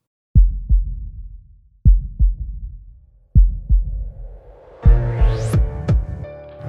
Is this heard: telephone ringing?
no